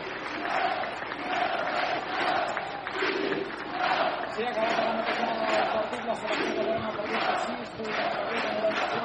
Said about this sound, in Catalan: la selecció catalana al centre de la pista crit d'independència des de la graderia